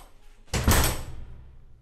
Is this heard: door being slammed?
yes